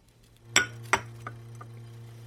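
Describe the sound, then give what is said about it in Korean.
A glass is set down with a bright clink, followed by a second sharp tap and a couple of fainter ringing ticks that fade out, over a low steady hum with no talking. “지론을 되새기면서 그는 잔을 내려놓았다.”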